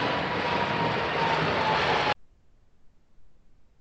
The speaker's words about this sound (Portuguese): E um boa tarde também pro, pro avião, e fez questão de participar do Resenha Histórica hoje. Mandar um tá abraço aí pro, pro pessoal da Latam, inclusive.